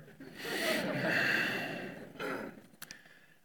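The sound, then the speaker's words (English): A person mimics snoring with a long, raspy, breathy inhale-like rumble, followed by a shorter snort and a couple of soft clicks, with no speech. “They're like, totally. We'll be right over there snoring.”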